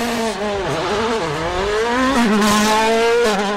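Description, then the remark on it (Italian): Car engines are started in a garage and rev loudly and continuously, their pitch rising and dipping in waves as the throttle is worked, with no talking over the sound. “Sento, sento che già qualcuno accende il motore delle proprie vetture in garage.”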